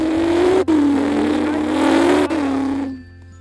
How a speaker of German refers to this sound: Oh, warte, ich muss kurz Auto-Effekt reinfügen.